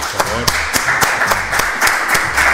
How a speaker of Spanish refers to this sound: Un aplauso